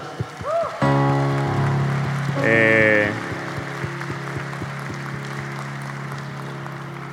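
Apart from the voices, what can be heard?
audience applause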